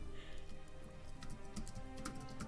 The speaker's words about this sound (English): I hear you typing.